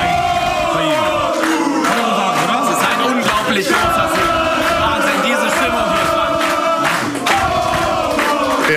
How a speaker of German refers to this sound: dann stand die Arena Kopf, ne?